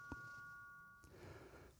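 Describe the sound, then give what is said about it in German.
A doorbell, rung by a postman or parcel courier, sounds a steady electronic two-tone chime that holds for about a second, somewhat faint, then fades into quiet background noise. “Der Postbote oder Paketbote klingelt einfach auch bei mir, obwohl das Paket für den Nachbar war, der halt auch die Tür aufgemacht hat.”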